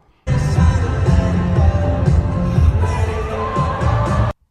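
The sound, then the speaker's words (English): A loud concert crowd roars and reacts over heavy, thumping music as a performer falls on the stage, a dense, continuous wall of sound lasting about four seconds before cutting off abruptly. “And let's hear the crowd make the noise as he falls down, actually.”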